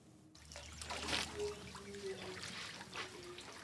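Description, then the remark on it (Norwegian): Water trickles and splashes in a steady, uneven stream, with a low hum and a faint thin whine underneath, during a breakfast of water and hay for orphaned elephants at the David Sheldrick Wildlife Trust orphanage in Voi, Tsavo National Park, Kenya; no one speaks. “Frokost med vann og høy.”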